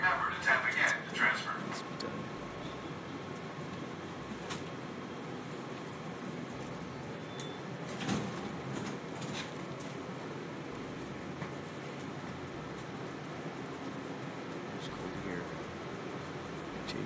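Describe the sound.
Train doors slide shut inside a rail car, preceded by a short chime, with a clunk partway through and a steady rumble of the carriage and faint muffled voices around.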